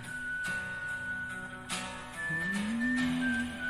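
A clear, sustained whistled melody rings over a music track with rhythmic guitar accents, evoking a spaghetti Western soundtrack. The whistle holds long notes and shifts pitch near the end.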